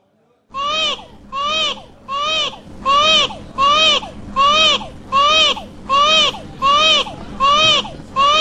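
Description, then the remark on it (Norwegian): The Baby Mario crying sound effect from the video game Yoshi's Island, heard when the player touches an enemy: loud, looping wails repeating in a steady rhythm, about ten identical bursts in quick succession, with no talking over them. “Hver jævla gang du kommer borti en fiende, så har du den lyden der helt til du klarer å jage han inn igjen.”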